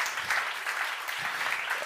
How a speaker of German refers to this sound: unsere Fotografen, auch mal für die Applaus bitte.